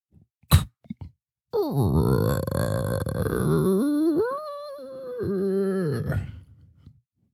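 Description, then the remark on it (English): A person vocally imitates a creaking door opening, starting with a sharp click, then a long, drawn-out warbling groan that bends up and down in pitch for about five seconds before fading. “Just do the door opening. I want to where you're at with your door opening sound effects.”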